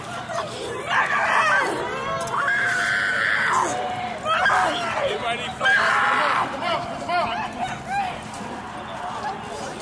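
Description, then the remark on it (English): Several people scream and yell over one another in overlapping, high-pitched bursts from multiple directions during a protest march as police make arrests. The screaming continues for the whole stretch, with a steady murmur of crowd noise underneath, loud. “Here, I hear screams coming from multiple directions.”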